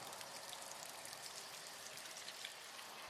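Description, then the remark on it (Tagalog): Steady rain falls continuously while someone waits for a bus, a dense hiss of droplets pattering on surfaces with no pauses, moderately loud, with no voices present. “Mahigit isang oras na ring naghihintay ng masasakyang bus sa ilalim ng Ulan”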